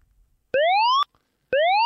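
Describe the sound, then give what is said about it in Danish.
An electronic alarm signal announcing a contest: two loud, identical upward-sweeping tones, each about half a second long, separated by a brief pause, with no voices. “Så er der alarm, og det betyder, at der er konkurrence.”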